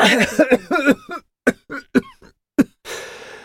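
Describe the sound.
A voice performs a small blond boy's fit of coughing: a rapid cluster of rough, hacking coughs, then several separate, sharper coughs spaced apart, ending in a breathy exhale. Fairly loud.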